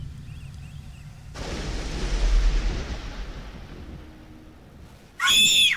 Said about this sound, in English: Oh my god. Who is that? Why do they keep screaming that was... like that? That was sure a loud scream.